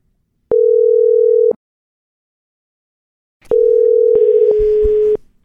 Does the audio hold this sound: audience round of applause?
no